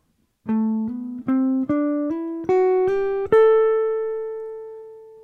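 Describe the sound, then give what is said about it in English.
A jazz guitar plays an ascending Dorian scale with hammer-ons: about eight clear, evenly spaced notes stepping upward in pitch, the final note left ringing and slowly fading. No one speaks. “I'm hammering on the first note out of each of the uh, patterns on each string.”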